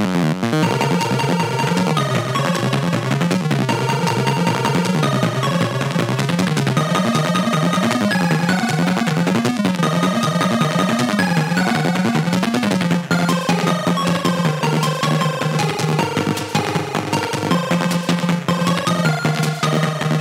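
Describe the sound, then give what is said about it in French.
Music from the video game Altered Beast on the Amstrad plays steadily and loudly: bright, buzzy chiptune tones carry a bouncing melody over a pulsing bass line, with no voices, for about twenty seconds. “donc on va rester sur Amstrad, on va continuer maintenant, mais on va écouter cette musique tout de suite, mais il va falloir quand même m'expliquer pourquoi sur Amstrad.”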